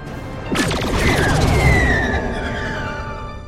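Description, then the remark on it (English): A sci-fi torpedo firing effect: a sudden sharp burst followed by a rushing, whooshing tail with descending electronic tones that slowly fade, loud, with no voices. “There's only a few other notes I have for this mm. original torpedo sound.”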